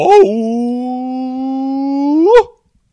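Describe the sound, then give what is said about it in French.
A lone voice imitates Noh theatre chanting, holding one long, steady, strained vowel for over two seconds, with a short swoop at the start and a sharp rise at the cutoff. “le no, en fait, tu, tu sais, le no, c'est presque la même chose, sauf qu'il parle encore moins. Ça fait genre... Yo”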